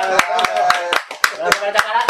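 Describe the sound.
A short burst of steady, rhythmic clapping, about eight sharp claps at an even pace, ringing out loud over voices talking underneath.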